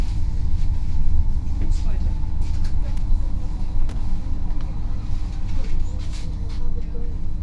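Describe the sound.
A tram ride with street traffic through the concrete prefab housing blocks of Schwerin, Germany: a constant deep rumble of the moving tram, with occasional clicks and rattles and faint, indistinct voices in the background.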